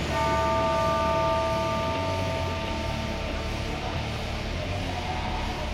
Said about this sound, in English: But the bell sample sounds crisp. It sounds like a bag of crisps.